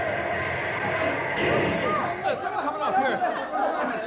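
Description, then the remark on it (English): Passengers on a bus clamor at once after the bus stops suddenly for a deer in the road, overlapping excited voices rising and falling, with a dull thump or two amid the steady commotion. “All right, folks, all right. Quiet down, take it easy. There's no serious damage done to the bus.”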